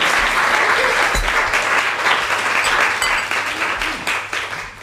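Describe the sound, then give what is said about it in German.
Sustained audience applause welcoming guest Maja Göpel, a dense wash of many hands clapping at a steady, fairly loud level for several seconds, easing slightly toward the end with no voices standing out. “Wir können, glaube ich, erstmal einen Applaus geben, dass sie mit uns.”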